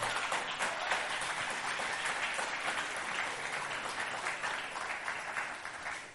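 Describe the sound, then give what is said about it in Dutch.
Steady audience applause fills the whole stretch, a dense wash of many hands clapping at an even loudness with no voices standing out. “Geef die maar eens een applaus.”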